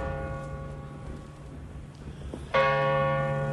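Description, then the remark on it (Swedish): A large church bell at Skansen strikes midnight on New Year's Eve, its long humming tone lingering before another loud, clear strike sounds near the end, with rich overtones sustaining afterward. No one speaks. “Ring klocka, ring! Och tolvslaget på Skansen som traditionsenligt visas i SVT på nyårsafton.”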